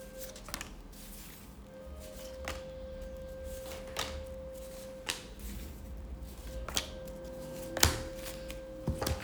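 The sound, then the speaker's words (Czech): Crisp snaps and soft riffles of a deck of tarot cards being shuffled by hand for a partner tarot reading, repeating irregularly about once a second over a faint steady electrical hum, with no talking. “Uh, já už se dívám na vaše fotky, míchám u toho karty a my se spolu podíváme, co nám Tarot poví o vás dvou.”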